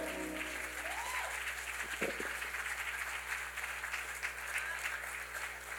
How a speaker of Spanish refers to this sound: Adórale con un fuerte aplauso al Señor en este momento.